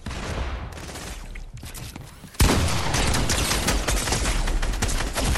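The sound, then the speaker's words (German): Rapid video game gunfire crackles in a dense, continuous barrage, growing suddenly louder and more intense partway through, with sharp repeated shots layered over a noisy battle backdrop. “Mann, ich bin so nicht eingespielt und diese Leute treffen auch jeden Schuss.”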